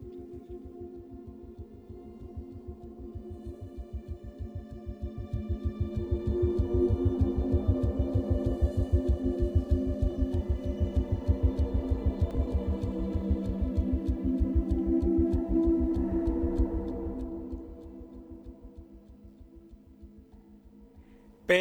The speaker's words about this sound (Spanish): Eh, expresarlo mejor y ese continuo efecto de sonido que claramente no es, no es un instrumento, sino que es un efecto eh, superpuesto por encima.